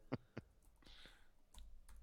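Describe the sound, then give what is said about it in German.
A handful of quiet, irregular key clicks from someone typing on a computer keyboard, with short pauses between keystrokes and no voices. “Ich schreibe jetzt hier mal.”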